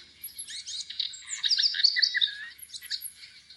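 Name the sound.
wren singing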